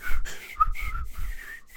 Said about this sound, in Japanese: いや口笛久しぶりに吹こうとしたら吹けなくなってる。うんやっぱいるのよ日々の鍛錬が。